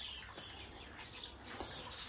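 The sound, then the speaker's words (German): Many birds chirp and call in a garden behind a typical residential house, their bright tweets overlapping against a steady hiss of running water from a fountain some distance away. “Was ihr im Hintergrund hört, ist ein Brunnen, der ist ein Stückchen weiter weg und natürlich ganz viele Vögel.”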